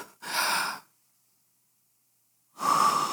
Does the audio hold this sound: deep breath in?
yes